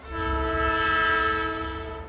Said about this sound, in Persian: صدای سوت قطار در فضا پیچید